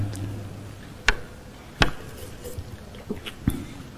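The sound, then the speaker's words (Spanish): Someone takes a drink of water: a few sharp, brief clicks and knocks, like a cup or bottle being handled, spaced irregularly over quiet background, with no talking. “Permítame tomar un poco de agua,”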